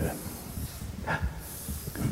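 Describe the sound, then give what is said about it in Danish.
A dog growls low and steadily for a couple of seconds, a soft rumbling grumble with a few breathy snorts, fairly quiet. “Er der en, der skal ud nu, eller hvad? Er det ja, der er noget... Øh... Nogen, der sidder og knurrer lidt af sig over, tror jeg.”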